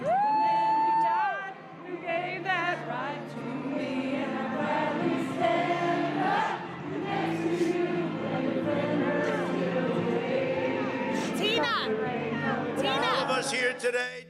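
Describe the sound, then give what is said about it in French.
A large rally crowd roars and cheers continuously as Donald Trump makes his entrance, with whoops, shouts and scattered yells rising above a dense wall of voices, loud and sustained throughout. “Le grand moment est enfin arrivé. Donald Trump fait son entrée, comme une rockstar devant son public de fans.”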